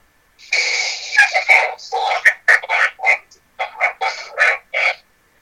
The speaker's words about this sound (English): Yeah, you could definitely hear it. Look at that pig.